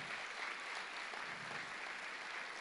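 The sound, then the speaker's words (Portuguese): An audience applauds steadily for the members from Pinhais, a dense wash of many hands clapping at even loudness throughout, with no voices standing out. “Olha, uma salva de palmas para os nossos irmãos lá de Pinhais.”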